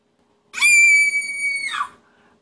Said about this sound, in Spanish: a gritar al ver eso, tú tienes dos opciones. Una, o lo regañas y la otra es preguntar por qué lo está haciendo.